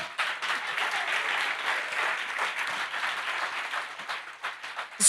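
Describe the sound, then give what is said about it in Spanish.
An audience breaks into sustained applause, a dense, steady wash of many hands clapping at even loudness for several seconds, with no one speaking over it. “Si le va a dar el aplauso.”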